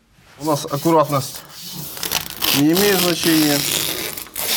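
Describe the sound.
Raspy tearing of sticky tape in short ripping bursts as it is pulled and pressed onto an apartment window in Kyiv, Ukraine, with a voice talking over much of it.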